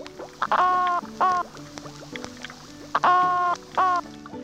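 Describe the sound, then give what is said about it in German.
A male fish growls to court a female in short, raspy croaking bursts, four of them in two pairs, fairly loud, with no voices over them. “Das Männchen balzt um das Weibchen durch Knurren.”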